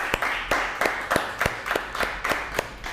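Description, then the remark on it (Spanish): An audience at a Shabbat gathering applauds with loud claps landing in a steady rhythmic beat, roughly three per second, over a continuous wash of many hands clapping. Nobody speaks. “Un fuerte aplauso.”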